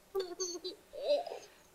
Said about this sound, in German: Im Hintergrund gluckerte ein Babylachen.